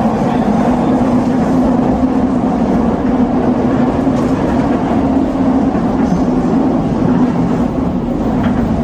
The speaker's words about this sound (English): This is reality of a peaceful train ride in Moscow. I came across this. Remember when train rides were like this? Normal, calm.